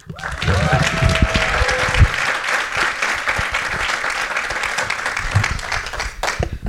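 Steady audience applause fills the whole stretch, a dense wash of many hands clapping at an even, loud level, with a few brief voices and cheers mixed in near the start.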